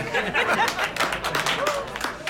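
A small group of party guests claps in a quick, uneven patter of sharp slaps, fairly loud and steady throughout, with faint chatter and murmuring voices mixed in.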